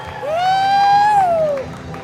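A crowd cheers and applauds for God after a prayer. One loud, sustained high whoop rises, holds for about a second, then slides down over a steady wash of clapping and shouting.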